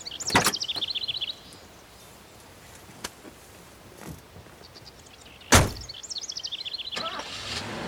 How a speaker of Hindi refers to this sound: गाड़ी स्टार्ट की उसने और ड्राइव करना शुरू किया